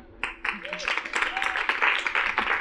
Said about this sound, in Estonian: ja teeme ühe suure aplausi meie moderaatorile